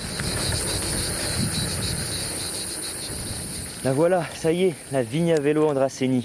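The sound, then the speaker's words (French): A steady, shrill buzz of cicadas singing behind a man out in nature, away from the city, fills the background throughout, loud and continuous, while the man begins speaking over it partway through. “Je je sais même pas d'ailleurs si vous m'entendez ou si vous entendez plus les cigales qui chantent derrière moi, parce qu'elles donnent de la voix aujourd'hui.”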